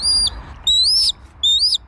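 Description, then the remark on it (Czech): A black kite calls three times in quick succession, each a thin, drawn-out whistled cry that rises and wavers, clear over a faint low background rumble. “Za vydatného přizvukování Luňáka Hnědého jsem si povídala se sokolníkem”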